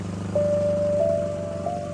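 A car horn blares in one long, unbroken honk that starts shortly after the beginning and holds steady to the end, over a low rumbling engine idle. No one speaks.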